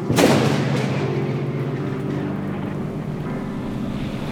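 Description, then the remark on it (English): A heavy crash opens into a steady, roaring storm on a ship at sea: howling wind and churning sea waves rumble continuously, loud and unbroken, with no voices. “The Storm, the Ship, and the Circumstances. Act 1, Scene 1. On a ship at sea”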